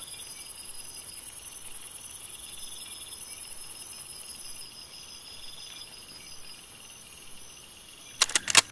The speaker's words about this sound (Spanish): Las ranas mantienen un compás melodioso con los grillos y cigarras. Es un privilegio poderlos oír, te dices a ti misma.